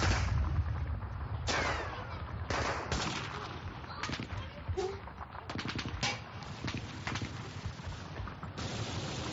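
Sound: gunfire sound effect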